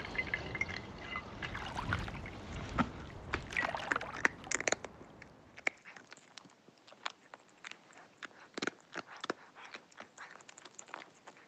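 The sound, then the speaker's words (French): A cat crunches dry kibble, with rapid, irregular crisp clicks and crackles of chewing running continuously, louder and busier in the first half, with no talking. “les sons, les trois sons, c'était euh, le premier, c'était quand mon chat mange ses croquettes.”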